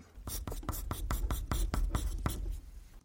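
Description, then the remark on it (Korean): Quick, scratchy strokes of a pen or pencil on paper writing letters of a word by hand, the fast version, about a dozen short bursts in a fast, fairly even rhythm, clear with no voices. “지금부터 글자 쓰는 소리를 들려드릴 겁니다.”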